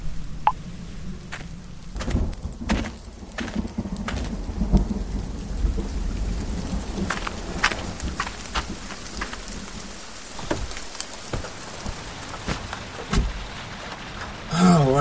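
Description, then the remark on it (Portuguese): A steady downpour of heavy rain patters and splashes, with deep rolling thunder rumbling underneath throughout, and sharp drops striking a surface now and then. No voices. “Em poucos minutos, os pingos se tornam um temporal.”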